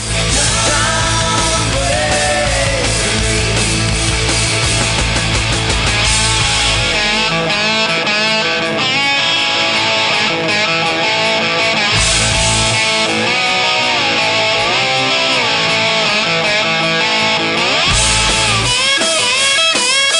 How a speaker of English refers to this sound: Hang on, there's a great guitar solo I want you guys and gals to hear. Hang on.